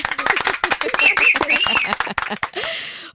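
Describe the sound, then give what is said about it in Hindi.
Audience applause for a correct quiz answer naming Chandigarh as the capital of Haryana and Punjab: quick overlapping claps in an uneven patter, mixed with voices and a brief high cheer or whistle partway through. “ओहो यार फिर दिल ले लिया तूने और पंजाब का चंडीगढ़ अरे रे तीसरी बार भी तालियां ले ले”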